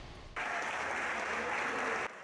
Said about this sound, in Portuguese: Os aplausos são para quem venceu a batalha pela vida.